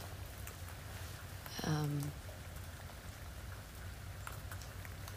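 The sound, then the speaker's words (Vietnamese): Steady rain dripping and pattering throughout outside an open balcony door, a soft continuous wash of drops, with a brief murmured hesitation from a voice partway through. “mọi người có nghe thấy tiếng mưa không không liên quan lắm nhưng mà nếu mọi người đang nghe thấy tiếng kiểu uh, giả dích giả dích thì đó là tiếng mưa mình mở ban công và mình ngồi ở uh, mở cửa ban công và mình ngồi ngay ở gần cửa”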